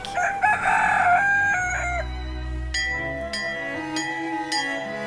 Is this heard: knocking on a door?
no